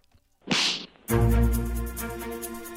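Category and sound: sound effect, slap sound effect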